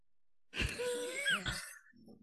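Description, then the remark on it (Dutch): Two rough coughs from a person about a second apart, with a wheezy, strained tone stretching between them, then fading into a quiet breath. “ik moet even hoesten.”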